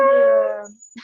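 dog barking or howling

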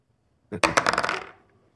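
dice being rolled

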